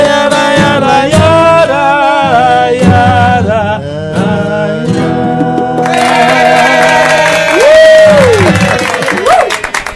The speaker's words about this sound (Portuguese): Tem gente aplaudindo aí, é?